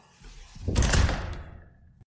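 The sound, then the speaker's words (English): A door slams shut with one heavy, booming impact that rattles briefly and fades, followed by a faint click. No voices are heard. “So we're slamming I think... this one. We'll slam this yeah. one.”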